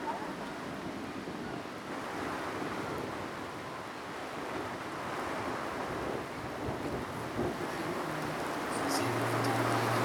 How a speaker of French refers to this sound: Effectivement, l'orage et la bonne averse arrivent, faisant fuir ou s'abriter pas mal de monde.